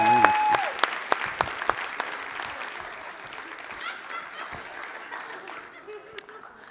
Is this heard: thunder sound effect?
no